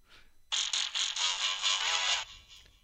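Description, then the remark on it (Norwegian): A short, bright electronic jingle plays from a mobile phone's small tinny speaker, a burst of quick repeated notes lasting about two seconds before cutting off, with no talking over it. “Den her pleier vi faktisk bare å ta fra mobilen. Så det, det kommer nå.”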